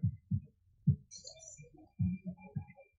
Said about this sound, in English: Right now they seem to be shooting the protesters with gas bullets.